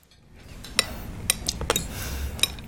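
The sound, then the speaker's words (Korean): Several sharp clinks of dishes and cutlery knocking together at an irregular pace over a low steady murmur, as a restaurant staff member clears the last meal plates before bringing tiramisu and coffee. “직원이 마지막 식사 접시를 정리하고 디저트로 식용 금가루를 뿌린 티라미수와 커피를 가져왔다.”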